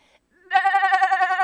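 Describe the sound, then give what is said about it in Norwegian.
A single sheep bleats loudly, one sustained wavering baa lasting about a second after a brief quiet start. “Hører de der? Og så kunne de ta sauen.”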